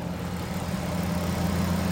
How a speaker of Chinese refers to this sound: 现在是一起稻作收割的期间，大型农耕机出动的时候，可是小白鹭和一身黑的八哥这些鸟类们最开心的时刻了。收割机在田间穿梭